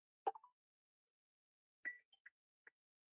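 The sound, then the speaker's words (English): Short electronic phone tones as a man uses voice commands to call his own other phone, in an otherwise silent stretch: a soft plopping blip, a pause, then a quick chirpy bleep followed by two brief faint pips. “Right, so there's there's me calling myself, I'll just try to kill all of that off.”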